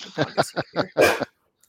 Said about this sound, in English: sorry, I'm so sorry, you guys. Normally my dog is like so quiet.